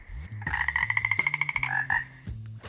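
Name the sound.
frog croaking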